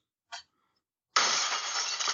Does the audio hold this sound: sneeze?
no